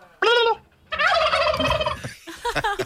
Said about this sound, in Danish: Og de der kalkuner, de går bare rundt og er kalkuner. Og øh, jeg ved ikke, og de, de går bare rundt og ser dumme ud.